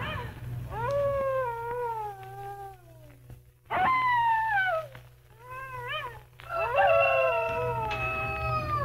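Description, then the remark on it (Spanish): A coyote howls in long, wavering cries that rise and fall, coming in three loud bursts with brief pauses, several voices overlapping over a steady low hum. “Toda la noche oyó los aullidos de la coyota.”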